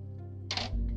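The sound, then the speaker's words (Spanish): Two beer cans bump together in a toast, giving one brief, dull metallic clink, with a low steady hum underneath and no talking. “Ay, no sonó bien, pero es que ahora son latas.”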